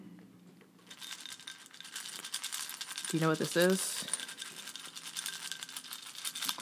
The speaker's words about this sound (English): Uh, it's I have some French toast crunch in a little glass bowl. Um, this cereal was recently introduced to me and I love it. It's so good with or without milk.